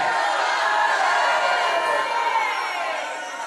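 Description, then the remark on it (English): An audience erupts in loud, sustained praise to God, many voices shouting, cheering and calling out together in a dense, continuous roar that eases slightly toward the end. “If you said that with me, praise Him out loud.”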